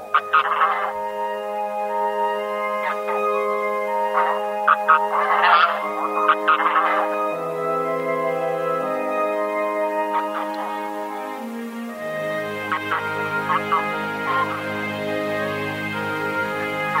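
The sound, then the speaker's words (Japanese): A flock of bean geese in Tome City, Miyagi Prefecture, Japan, calling continuously, many overlapping nasal honks and drawn-out tones layered together at a steady, moderately loud level, with no voices. “宮城県登米市のヒシクイをお届けします。”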